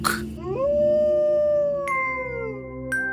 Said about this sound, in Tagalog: Biglang umalingaw-ngaw ang nakapangingilabot na alulong ng isang asong bundok.